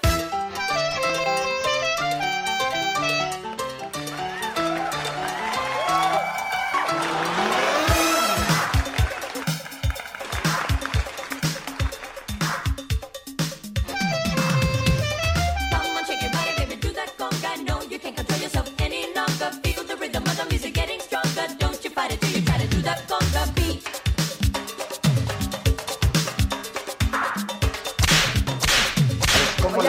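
Upbeat Latin conga dance music plays loudly and continuously, with a driving percussive beat under bright melodic lines, filling the whole stretch without pause.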